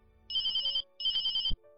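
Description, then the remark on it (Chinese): A telephone rings as a call is placed, two short bursts of high, warbling electronic tone, each about half a second long with a brief pause between them, and no voices. “乔治没有直接将消息告知警察，先给黄成拨通电话。”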